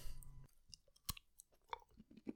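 Crunchy chewing of a chocolate protein crunchie snack, several brittle bites and munches in an irregular rhythm, fairly quiet, with no talking.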